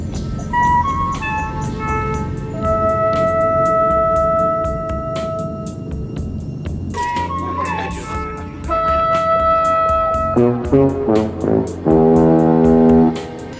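A short, sustained five-note musical motif from the film Close Encounters of the Third Kind, used to communicate with extraterrestrials at a mountain, played on bright, brassy synth tones, repeated several times loudly and alone, the final passage breaking into quicker stacked notes.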